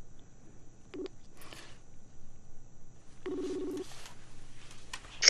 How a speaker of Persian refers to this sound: من فکر میکنم که شاید نقص تکنیکی داشته باشیم ولی من کوشش میکنم که از طریق تلفن برشون زنگ بزنم